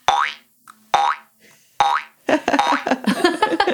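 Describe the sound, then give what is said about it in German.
Three springy cartoon boings, loud, each a quick wobbling rise and fall with short pauses between, apparently imitated by a voice mimicking a hopping grasshopper, followed by a burst of lively talk and laughter. “In meinem Kopf hupft gerade dieser Grashüpfer herum und es geht die ganze Zeit boing, boing.”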